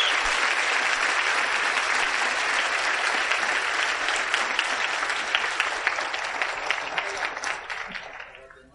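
Sustained audience applause at an organization's gathering, applauding its next 'diamonds': a dense wash of many hands clapping steadily for about eight seconds before thinning and fading out at the end.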